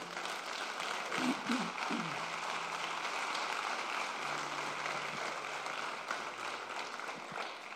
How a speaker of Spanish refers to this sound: ¿Qué tal si le das un aplauso al Señor?